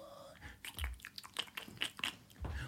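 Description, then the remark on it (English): Someone chews a mouthful of burger, with soft wet smacks and crunchy bites in an uneven rhythm for a few seconds, fairly quiet with no talking. “What is that? A burger? You brought a burger into”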